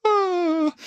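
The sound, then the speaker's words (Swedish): A person vocally imitates the thin, high wailing cry of dying Pikmin from the Pikmin video game, whose souls float up to the sky: one sustained tone of under a second that slowly sinks in pitch before cutting off with a short breath. “Och när Pikmin dör så blir de själar som flyter upp mot eh, skyn och låter typ så här.”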